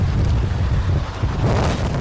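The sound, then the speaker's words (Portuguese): Heavy wind from storm Eunice buffets the outdoor microphone of a man filming planes at Heathrow airport, producing a loud, continuous low rumble with gusty fluctuations throughout, and no voices are heard. “Portanto, há um tipo que está claramente na rua, percebes uhum. pelo vento, a filmar os aviões.”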